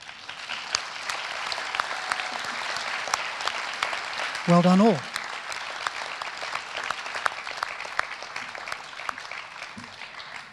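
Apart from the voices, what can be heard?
audience applause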